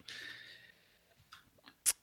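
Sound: sneeze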